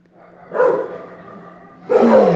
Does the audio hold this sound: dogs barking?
yes